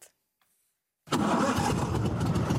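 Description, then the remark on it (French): After a second of near silence, a hovercraft engine abruptly roars to life and keeps running loud and steady, a dense, rumbling drone, as the hovercraft is piloted on flooded, submerged roads in the village of La Caloterie, France. “Habitué au sauvetage en mer, il pilote aujourd'hui cet aéroglisseur en pleine ville, sur des routes submergées”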